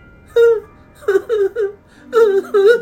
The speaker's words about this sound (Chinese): 不过，当我刚把烘干机里的衣服一件一件拿出来叠好的时候，我突然听见了卧室里传来婴儿的啼哭声。